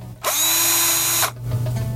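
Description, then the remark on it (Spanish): A dentist's drill at a dental clinic, heard from a distance while a patient is having a cleaning, whirs with a shrill, steady high-pitched whine for about a second, then cuts off, leaving a low electrical hum that runs under the whole recording. “Llegas a la clínica y a lo lejos nomás escuchas el ruido del taladro.”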